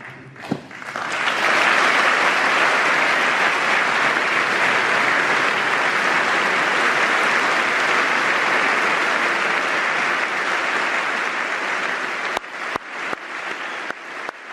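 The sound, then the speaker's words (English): Loud, sustained applause from a large crowd during a Trump speech honoring Corinne Owens, widow of U.S. Navy Senior Chief William Ryan Owens, with Trump clapping into the mic; a dense steady roar of clapping lasting over ten seconds before thinning into a few scattered, separate claps at the end. “And then Trump claps into the mic.”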